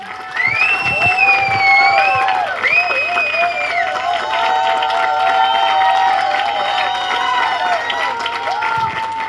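A crowd applauds and cheers loudly and steadily, with high whistles and shouts rising over a dense wash of clapping that carries through the whole stretch.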